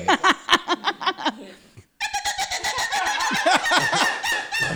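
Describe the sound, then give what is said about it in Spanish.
An actress's voice imitates machine-gun fire, portraying a vagina that talks like a machine gun, with a rapid string of sharp, staccato bursts, pauses briefly, then launches into a longer, denser volley. Fairly loud, with a clucking, laugh-like quality. “Por ejemplo, la vagina que es una metralleta. El sonido.”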